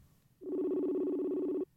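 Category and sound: signal or alarm, phone call ringing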